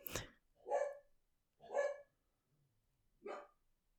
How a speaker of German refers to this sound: Draußen rastet der Hund aus.